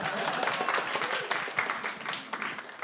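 An audience applauds steadily for a few seconds, a dense, even patter of many hands clapping at once without letting up.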